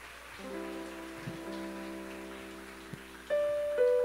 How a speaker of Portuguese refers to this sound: Aleluia. As palmas louvam o nome de Jesus.